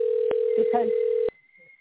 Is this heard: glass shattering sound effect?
no